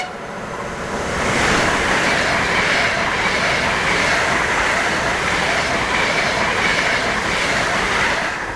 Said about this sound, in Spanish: Y esto que escuchas ahora es Moscú. Lejos del frente en Ucrania y a pesar de la guerra, la actividad urbana en la capital rusa continúa.